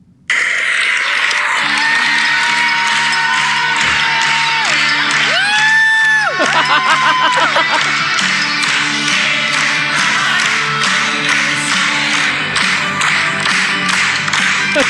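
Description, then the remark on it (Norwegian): A large crowd cheers loudly and continuously as performers on stage sing the team song, with whoops, yells and applause blending into a dense roar, while a few drawn-out shouts rise above it near the middle. “Ja, som du hører, det var god stemning blant uh, rekkene”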